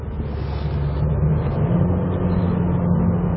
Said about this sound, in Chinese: 开了一会儿，另一个明显的不同就是它的1.8升发动机在出弯的时候，你看啊